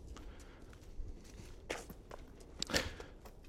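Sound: footsteps walking outdoors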